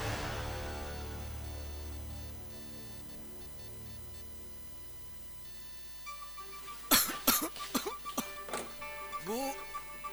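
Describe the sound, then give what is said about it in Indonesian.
A man coughs heavily in a series of harsh bursts after several seconds of quiet background hum, the coughs coming in a rough, uneven cluster. “Uh, Bapak batuk parah nih.”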